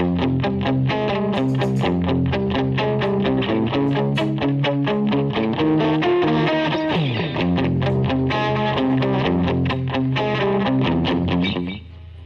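Electric guitar chords played through a VegaTrem tremolo, the sound pulsing in steady rapid throbs. A slightly overdriven tone, loud and continuous, fading at the very end with no voices.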